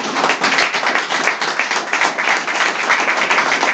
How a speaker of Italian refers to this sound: Abbiamo qui la fortuna e il piacere oggi di avere il direttore del primato nazionale, Penna della Verità, Adriano Sciampa, a cui tributerei un grande applauso da parte della sala.